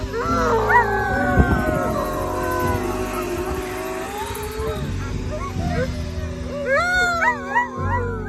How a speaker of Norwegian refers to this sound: når helikopteret landa og de eh, kara begynte å ta med meg bortover, da satt alle ti bikkjene mine og ula. Så de merka at det var et eller annet rart.